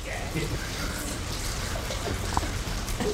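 Heavy rain pours down at Ramah Darom, a Jewish camp in the town of Clayton in the North Georgia mountains, in a steady, dense, fairly loud hiss, with a constant low rumble and occasional sharper patters of drops hitting surfaces.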